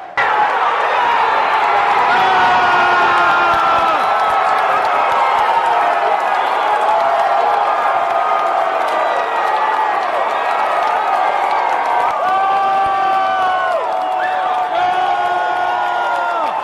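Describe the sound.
A large stadium crowd roars steadily for the full stretch, with cheers, whoops and sustained shouting blending into one loud, dense wall of sound and rising voices near the end.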